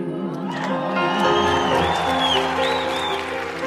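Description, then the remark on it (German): A German-language pop song kicks in at full volume, with layered instruments, sustained harmonic tones and bright sliding vocal-like lines holding steady throughout, no one talking over it. “Da können wir kurz mal reinhören für die, für die Radiant Show Hörer. Wir lassen es kurz mal anlaufen. Ton ab.”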